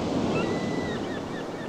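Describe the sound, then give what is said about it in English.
A steady roar of ocean surf washing onto the shore, fairly loud, with a breezy hiss over it and no voices. “And they rolled on down the coast road toward London town until they came to the top of a hill where they could see the ocean.”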